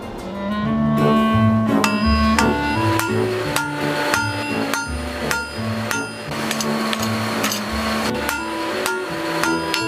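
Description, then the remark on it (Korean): A blacksmith's hammer strikes hot metal again and again in a forge over 70 years old, each blow ringing sharply off the anvil in an uneven working rhythm, loud over a steady low drone. “누가 이런 일을 할까 싶지만 3대째 누구도 대신할 수 없는 대장장이로 살아온 특별한 부자의 이야기를 뉴스인에서 들어봤습니다.”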